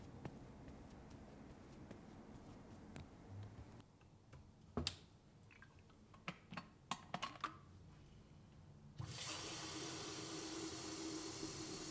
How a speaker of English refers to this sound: I'm gonna just add some hot water to the kettle, and you can tell me about how your day is going.